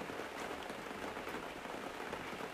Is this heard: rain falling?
yes